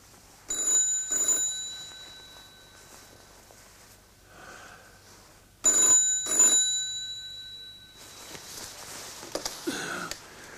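An old-fashioned telephone bell rings in two separate bursts a few seconds apart, each a loud metallic double trill with a sustained high tone, followed by soft rustling and breathing.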